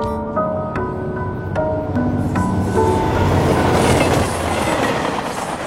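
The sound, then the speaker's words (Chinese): A subway train pulls in, beginning with a series of high, stepped squealing tones over a low rumble, then swelling into a steady, loud roar and clatter of wheels. No voices. “阿呆也很热心的带阿珍去坐地铁，结果阿珍太蠢，直挺挺的走。过了黄线，”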